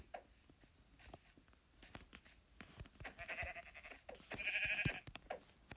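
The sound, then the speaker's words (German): A sheep bleats twice in quick succession, fairly loud, the second call more nasal and strained, while light tapping footsteps patter around it. “Hier ist ein Schwein. Das lassen wir jetzt mal in Ruhe. Und dann noch ein Schaf.”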